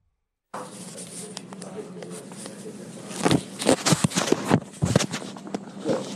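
Muffled rustling and scraping of a phone jostling inside a man's pocket as he walks in, with irregular soft thumps that grow louder and busier in the second half.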